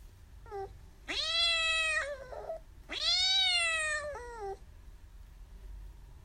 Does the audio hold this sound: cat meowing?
yes